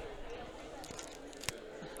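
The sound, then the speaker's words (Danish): Two chocolates, one coffee-with-milk and one marzipan, tap together once in a short, dry click as a toast, over a low, steady background hum with faint voices. “Det, det var lyden af to chokolader, der slog sammen, ja, det, er, det er en form for skål.”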